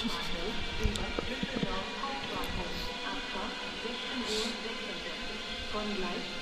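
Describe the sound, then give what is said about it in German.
An ICE train, the ICE 18 from Brussels, pulls out of track 3 at a station as a shunting run, rumbling steadily with a broad hiss and faint clanks, on a busy platform while people talk softly in the background. “Bringt jetzt aber nichts mehr, jetzt fährt der Zug nämlich raus.”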